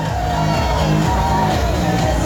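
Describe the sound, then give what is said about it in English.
A large stadium crowd cheers while doing the wave, a dense, continuous roar that holds at a steady, loud level throughout, with a few whoops and shouts mixed into the wash of voices. “People who do the wave are assholes.”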